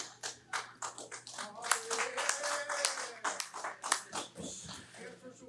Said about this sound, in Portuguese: Espero que essas palmas não sejam deboche.